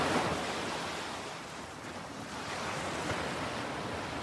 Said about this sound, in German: Du hörst das sanfte Rauschen der Wellen, während sie über den Strand und deine Füße sanft hinüberrollen. Und du siehst zu, wie sie sich langsam wieder zurückziehen in das Meer.